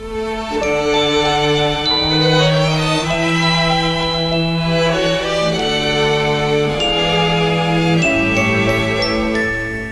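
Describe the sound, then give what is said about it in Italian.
Bright, upbeat instrumental intro of the original Japanese opening theme of an anime, with layered sustained melody lines and chiming, bell-like tones at a steady, full volume. No singing or talking yet. “visto che ne abbiamo parlato adesso di loro due, di Jen e Michi, ci ascoltiamo la opening originale giapponese”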